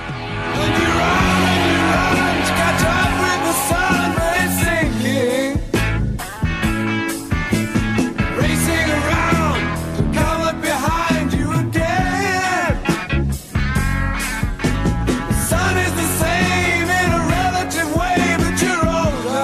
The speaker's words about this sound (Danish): Skal vi så ikke slutte programmet af med at høre den bid fra, fra sangen? Fremragende idé.